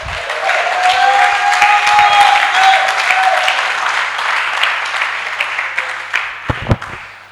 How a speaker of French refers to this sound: Acclamez très fort pour toi.